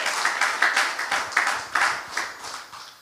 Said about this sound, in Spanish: Dele palmas al que vive.